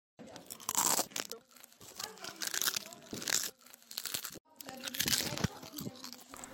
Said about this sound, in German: die ganz genüsslich einige Chips verdrückt hat